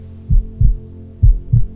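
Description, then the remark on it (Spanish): Two pairs of deep, muffled thumps in a lub-dub rhythm, a slow heartbeat over a low steady hum, with no voices. “porque tus latidos son vida y hoy lo pones a latir con toda la fuerza del amor y la gratitud que te habita,”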